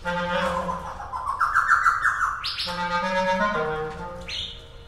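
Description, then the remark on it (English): A laughing thrush, a small brown bird with a dark beak, calls in a continuous run of rich, whistled notes that slide up and down in pitch, fairly loud over a low background hum, doing call and response with a clarinetist. “The laughing thrush was interested.”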